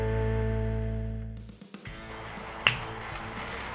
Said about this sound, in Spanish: Hoy vamos a hacer aplausos. Hay que hacerlo sí. Ajá. Sí, se escuchó bien, vergón se escuchó. Ah, bueno. Se escuchó bien.